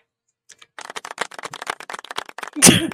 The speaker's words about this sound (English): Who the fuck did that golf clap?